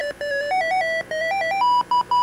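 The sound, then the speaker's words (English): A bright, bleepy video game level-complete jingle from the game with Cubert and Coily the snake: a quick run of stepped electronic tones climbing in pitch, ending in three short repeated beeps, loud with no talking. “I wish that song played every time you did something good.”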